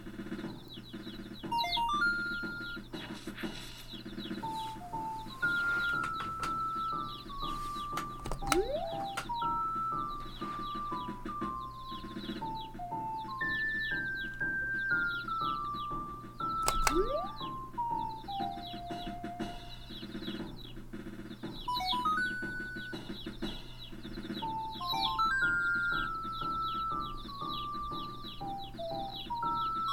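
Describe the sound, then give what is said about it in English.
Little baby chick peeps from a video game, the chicks following Link as he marches around, chirping steadily over a bright, looping electronic melody that plays throughout at a fairly even volume, with no talking. “what you're hearing is little baby chicks uh, who are following as Link marches around.”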